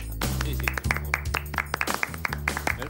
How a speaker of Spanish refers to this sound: Me estoy aplaudiendo a mí mismo.